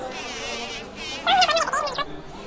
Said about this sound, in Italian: Lo senti questo ronzio? Le api si stanno risvegliando.